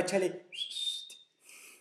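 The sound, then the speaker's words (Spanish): A short, breathy whistle: one thin steady note rises out of airy blowing, holds for under a second, then fades into a final puff of air. A brief burst of voice comes first. “si Jesús le hubiera soplado del hoyo, güey, de la mano, sin pedos puede chiflar”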